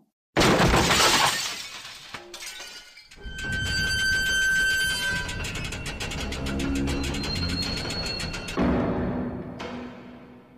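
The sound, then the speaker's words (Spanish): A floor breaks open with a sudden, loud shattering crash, followed by seconds of clattering, crumbling debris and ringing metallic tones, with a second smaller crash near the end; no one speaks. “acaba de abrir un agujero en el suelo?”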